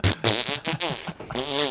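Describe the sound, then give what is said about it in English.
A person blows a series of wet, buzzing raspberries imitating farts, several quick sputters with wobbling pitch followed by a longer drawn-out one, loud and close. “This is my farting room. I go in there and I”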